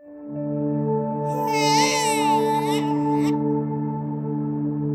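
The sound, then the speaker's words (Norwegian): The first cry of a newborn Norwegian-Pakistani boy, born at Aker hospital in Oslo on a November morning in 1975: a short, wavering high-pitched wail lasting about two seconds, layered over a loud, steady droning musical tone that starts before the cry and continues after it. “Allerede få minutter etter hans første spede nyfødtskrik trenger han hjelp.”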